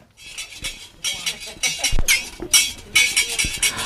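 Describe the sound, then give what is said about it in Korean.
Rapid metallic clacking of a taffy (yeot) seller's big scissors, snapping in quick rhythmic bursts with sharp bright clicks, clear, with no voices. “아, 이게 엿장수 가위소리군요.”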